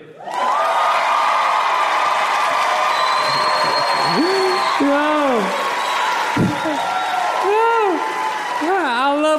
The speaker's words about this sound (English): people clap for me, man.